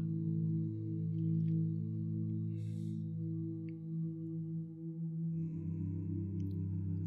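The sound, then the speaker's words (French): A small meditation bell rings out in a sustained, shimmering tone, its layered overtones humming steadily and slowly shifting as the resonance lingers, with no voices present. “Pour bien compter le nombre de fois que tu vas entendre le bruit de la petite cloche.”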